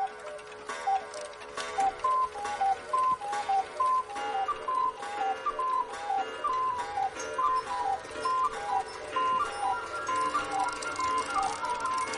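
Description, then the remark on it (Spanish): Several cuckoo clocks in a souvenir shop are set off at once, their two-note cuckoo calls overlapping in a busy, repeating chorus over steady ticking, fairly loud for the whole stretch. “activa los relojes de Cuco.”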